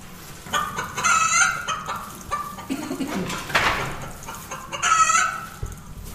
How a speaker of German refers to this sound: Hier oben haben wir noch Hühnchen. Ein Hühnerstall. Bock, bock, bock, bock. Aber keine echten. Nee, keine echten.